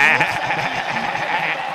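A goat bleating sound effect: one loud, long quavering cry with a shaky, wavering tone that carries for about two seconds without any talking.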